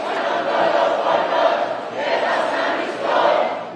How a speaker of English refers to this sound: That's the sound of protest that erupted in violence this weekend in Greece after two trains careened toward each other for 12 minutes in the lead up to a crash that killed more than 50 people.